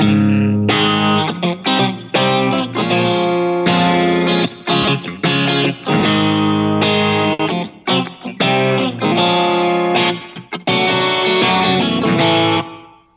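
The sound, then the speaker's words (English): A clean electric guitar played through a Variax plays a steady run of strummed chords with short breaks between them, the harmony modulating up a half step as it goes, loud and on its own with no talking. “Um, so it, it um, it's just a clean sound, but uh, something like.”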